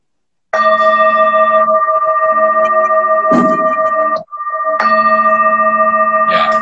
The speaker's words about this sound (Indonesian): Jadi ini contohnya. Ini Tibetan singing bowl. Kira-kira suaranya seperti ini ya. Jadi biar kebayang.